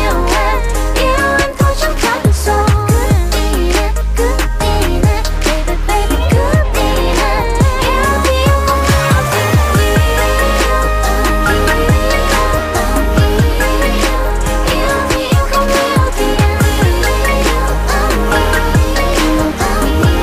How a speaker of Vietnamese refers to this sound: quá ngọt ngào, quá dễ thương tiếng hát của … trong bài hát …